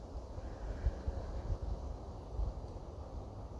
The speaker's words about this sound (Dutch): Ik weet niet of je het hoort in de opname, maar ik hoor de wind waaien die ruist door de bladeren van de bomen heen.